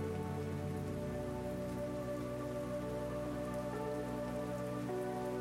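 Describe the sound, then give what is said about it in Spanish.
Steady, even rain patters on a hard surface, a dense continuous hiss of drops that holds the same loudness throughout with no voices. “Hoy realizamos una meditación con los sonidos de la lluvia”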